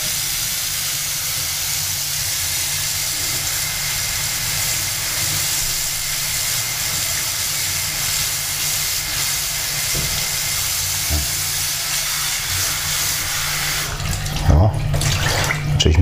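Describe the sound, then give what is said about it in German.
Tap water runs steadily into a bowl, left running until it turns colder, being filled with fresh water for a cat; a continuous hiss and splash that stays even throughout, with a few clinks and shifts in the flow near the end. “Lass mal laufen, das Ding hier. Kälter wird hier.”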